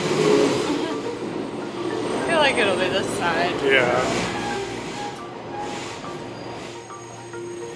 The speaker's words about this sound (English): we're sitting here on the train after the last stop as it's making its turnaround